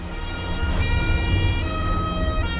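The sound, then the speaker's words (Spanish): Police car sirens wail steadily and loudly through the streets of Palermo on 29 September 1984, their high tones sustained over a low rumble of street traffic, with no voices. “El 29 de septiembre de 1984 se oyeron las sirenas de los coches de policía resonando por las calles de Palermo.”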